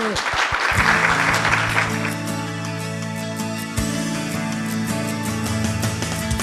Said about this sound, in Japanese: 今一度大きな拍手をお願いいたします